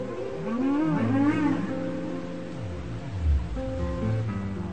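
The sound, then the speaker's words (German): Whale song recorded underwater: long, sliding tonal calls rise and fall over a steady hiss of background noise, with several overlapping low moans and higher glides. “Bei Wahlen ist noch zusätzlich zu erwähnen, dass das Medium Wasser erlaubt es der Schale eben schnell und sehr weit getragen zu werden.”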